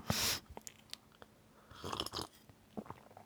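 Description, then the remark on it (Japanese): Sipping of hojicha (roasted green tea): a brief slurp at the start, then soft wet mouth clicks and a couple of quiet swallows, with no talking. “ちょっと待ってお茶飲まして”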